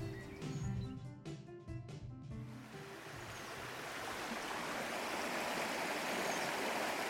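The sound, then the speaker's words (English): A small, fast-running brook rushes and gurgles steadily and fairly loud, swelling in after a few seconds of soft tonal sound at the start and then flowing continuously. “But I've found this um, this small, fast-running brook.”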